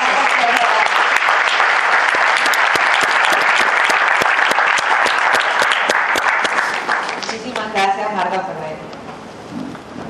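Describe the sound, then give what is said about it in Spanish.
Loud, sustained applause from an audience, dense clapping that holds steady for several seconds before thinning out as a voice begins speaking near the end. “Un fuerte aplauso entonces para”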